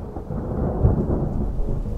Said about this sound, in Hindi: बारिश की वजह से पूरा आंगन पानी से भर चुका था